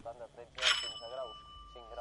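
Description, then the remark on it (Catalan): A single bright doorbell ring at a patio door strikes sharply and its metallic tone lingers for over a second, ringing out over people talking in the background. “Sona de sobte el timbre de la porta del pati.”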